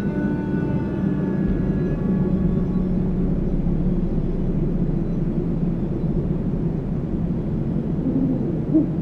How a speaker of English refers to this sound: In October this year, I've spent a few nights out around dusk in an area I know great horned owls frequent, hoping to finally get recordings of this species in person.